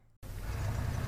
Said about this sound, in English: What you're hearing right now is the snowplow going up and down my street, plowing open the road and plowing in my poor car that's parked on the curb.